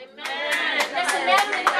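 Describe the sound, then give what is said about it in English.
A crowd at worship claps for Jesus Christ, a steady, dense patter of many hands, sustained and moderately loud with a few sharper bursts, with a faint murmur of voices blended underneath. “Oh, if you are clapping, do it better for Jesus Christ.”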